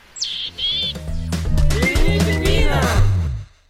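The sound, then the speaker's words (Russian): A willow tit gives its call: two thin, high notes followed by a run of harsh, nasal, buzzing notes repeated for a few seconds, loud and unmelodic, with no talking. “еще я выучила позывку буроголовой гаечки, в отличие от Москвы, там, где я живу, там много леса, и там буроголовых гаечек много, и вот у них эта позывка вообще не мелодичная.”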